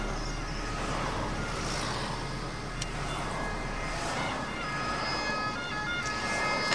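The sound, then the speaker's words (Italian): An ambulance or carabinieri siren wails in slow rising and falling sweeps, faint beneath the steady rumble and road noise of a car interior, with the siren coming from behind the car. “Ah, l'ambulanza. o i carabinieri che non si sa da dove cazzo deve passare.”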